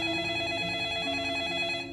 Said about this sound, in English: You start to play it, and it's like somebody's nightmare. And as soon as it's over, your phone rings.